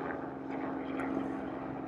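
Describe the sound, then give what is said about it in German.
A helicopter flies over the runway at Bromma Airport in Stockholm, Sweden, with a steady, droning engine and rotor roar and a low hum underneath, holding at an even, moderate level. “Ich bin jetzt hier gerade auf der, kommt noch ein Hubschrauber vorbei, der über die Landebahn fliegt,”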